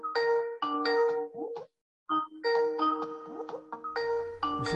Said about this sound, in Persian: تلفن برات اومده داره اسکایپت زنگ میزن